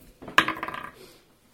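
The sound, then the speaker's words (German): Dice rolled for a shooting check in a game clatter across a hard surface in a quick burst of rattling clicks, a sharp first hit followed by several lighter tumbling taps that fade out within about a second. “Ja, dann würfel einfach mal bei dem, deinem Wert bei Schießen.”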